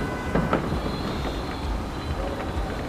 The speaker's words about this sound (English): Then I imagined other parts of the city chiming in, crowds gathered in protests, trains racing in the tunnels, Moscow's never-ending traffic. Just the hum and din of an average day in the city.